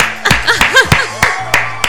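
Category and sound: human body sound, hand clapping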